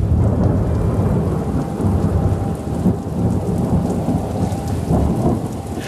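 Steady heavy rain pours down with deep, rolling thunder rumbling continuously underneath, a full thunderstorm with no voices.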